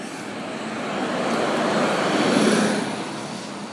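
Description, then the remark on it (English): A bus passes by on the street, its broad engine rumble swelling to a peak and then fading as it moves away, with no voices. “I, I just I just saw, uh, I didn't realize there was a bus that headed uh, on the street.”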